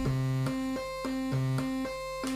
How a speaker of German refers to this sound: Das ist eine Sägezahnwellenform